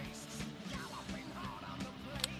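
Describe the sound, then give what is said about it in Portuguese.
A sound effect of a crowd of small children yelling and cheering together, a dense, continuous wash of high excited voices with a few sharper shrieks poking out, fairly soft. “Botar aquele, aquele som das criancinhas gritando, tá ligado? Exatamente, esse mesmo.”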